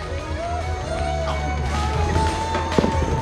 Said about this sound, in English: And y'all worship with them as wonderful, awesome guys are back there firing off these fireworks.